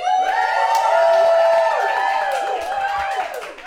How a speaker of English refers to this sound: there, you hear our sexy, sexy live audience, and I'm sure all of you listening at home or in the car or on the subway or in a jet aeroplane are just as sexy, and we wish you were here.